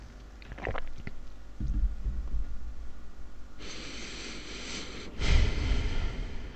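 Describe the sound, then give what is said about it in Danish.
Noisy slurping of a sip of hot tea in two long airy pulls, each a hissing suck of air and liquid, with a brief pause between and a few small mouth sounds before. “jeg skal lige tage en slurk te, så jeg kan finde min...”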